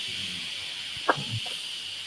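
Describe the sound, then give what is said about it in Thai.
A computer cooling fan hisses steadily and evenly throughout, a constant airy whoosh at moderate level, interrupted only by a brief soft click partway through; no one speaks. “เหมือนคอมพิวเตอร์พี่มันเสียงดังป่าวะใช่ไหมได้ยินเสียงซ่าๆป่ะเสียงเหมือนพัดลมคอมป่ะเสียงพัดลมคอมพิวเตอร์ป่ะพี่เสียงพัดลมแล็ปท็อปป่ะ”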